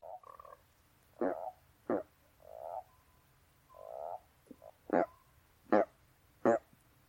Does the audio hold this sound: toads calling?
yes